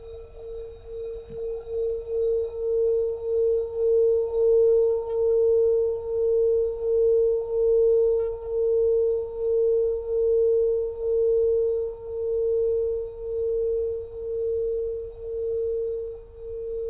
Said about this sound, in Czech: Teď rozezním zvon, abyste vystoupili z meditace.